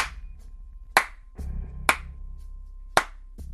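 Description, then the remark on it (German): Slow, sarcastic clapping: a few sharp, evenly spaced claps about a second apart, each ringing briefly over a low, steady hum. “Und mitten in der angespannten Ruhe ertönt ein sarkastisches Klatschen.”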